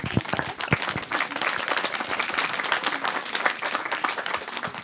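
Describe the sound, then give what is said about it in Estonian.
An audience applauds the panelists at the close of a panel discussion, a dense patter of many hands clapping at an even, fairly loud level for several seconds, with no one talking over it. “palun suur aplaus meie panelistidele.”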